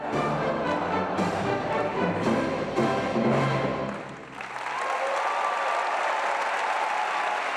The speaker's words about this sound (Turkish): Gençlik marşını gençler çaldı, bütün salon eşlik etti. Cumhuriyet ruhuna yakışan unutulmaz konser dakikalarca ayakta alkışlandı.